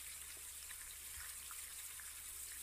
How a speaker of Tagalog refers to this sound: Rinig niya ang talamsik ng tubig na mula sa shower. Maging ang gripo ay bukas.